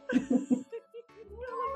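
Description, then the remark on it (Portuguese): A female cat meows: three quick, gruff bursts in a row, then a longer, drawn-out meow that rises and trails off. “Olha o miado dela. Brabona.”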